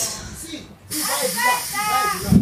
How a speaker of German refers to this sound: man hört sich im Hintergrund ein italienischer Zug.